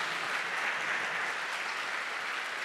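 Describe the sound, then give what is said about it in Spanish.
An audience claps steadily and densely in applause for the Lord, a sustained wash of many hands applauding at once, even in loudness throughout, with no voices standing out. “Dele fuerte ese aplauso al Señor. Fuerte ese aplauso.”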